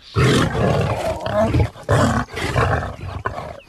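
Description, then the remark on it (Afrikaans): A huge maned lion roars loudly in several long, rumbling bursts separated by brief pauses, with no other sounds around it. “En toe besef olifant dis 'n yslike maanhaar leeu.”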